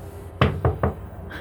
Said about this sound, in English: I think she just knocks on the door.